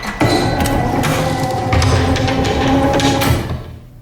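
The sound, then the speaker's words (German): A heavy mechanical secret door, operated by remote control, slides shut and is hermetically locked with a loud, steady grinding rumble and metallic clatter lasting about three seconds, then quickly dies away. No one speaks. “Soeben wurde der hinter euch liegende Geheimzugang hermetisch verriegelt.”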